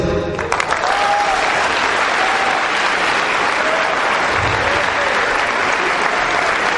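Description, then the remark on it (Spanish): An audience breaks into sustained applause, a dense, steady wash of many hands clapping at an even, fairly loud level for about seven seconds without letting up. “Así que te aplaudo por eso.”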